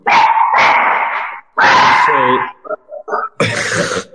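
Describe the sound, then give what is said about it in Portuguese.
A small dog barks loudly in several drawn-out bursts, with a few short, sharp yips scattered between them before a final burst. “Até, olha, até teve a então, o cachorrinho manifestou.”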